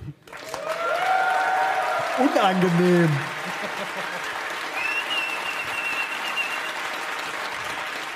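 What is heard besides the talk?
audience applause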